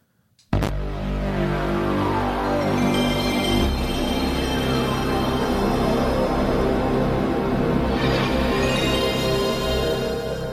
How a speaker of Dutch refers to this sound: Eh, het was natuurlijk het geluid van de PlayStation 1.